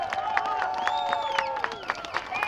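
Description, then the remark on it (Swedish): A crowd claps in a steady, fairly quick rhythm, sharp hand claps standing out over raised voices and some whistling-like tones mixed in. “Men likväl så klappade folk händerna sen när hon liksom pratade om att ja, vi måste göra motstånd och så vidare.”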